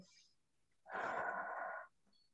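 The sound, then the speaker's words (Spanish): A single long, steady breath, soft, drawn out for about a second like a slow, relaxed exhale, demonstrating calm breathing while sitting and relaxing, with near silence before and after. “te relajas, respiras tranquilamente y dejas que esos pensamientos vengan y se vayan, vengan y se vayan, hasta que lo único que encuentres es tranquilidad y que ese, esa respiración que iba así empiece”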